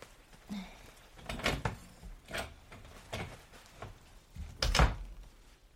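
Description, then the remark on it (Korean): A room door is handled and pushed shut indoors by someone listlessly going into their room: a few soft wooden knocks and rattles lead up to one firmer closing thud near the end, with no talking. “힘없이 방문을 닫고 들어가는 네가 안쓰럽긴 했지만 그냥 내버려뒀어.”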